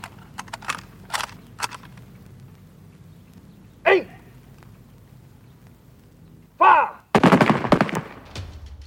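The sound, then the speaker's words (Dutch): A firing squad's volley at the execution of spy Willem Roos at the Tower of London on 30 July 1915: a few scattered sharp reports, then a loud, dense burst of overlapping shots near the end, with no talking. “Op 30 juli 1915 wordt Willem Roos in alle vroegte geëxecuteerd in de touwen van Londen.”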